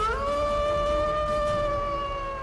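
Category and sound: animal, wolf howling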